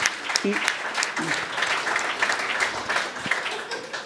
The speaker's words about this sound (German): Gratulieren. Das ist jetzt. Äh, das ist ein Applaus.